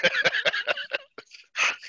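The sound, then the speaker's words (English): A dog barks in a quick, evenly spaced run of about five sharp barks, then a brief pause and a couple more. The barking is clear, with no talking over it. “God dog it. Your timing is perfect.”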